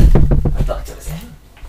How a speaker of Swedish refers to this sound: Nu knackar det här bara, så jag bara ja. ser om det är någon.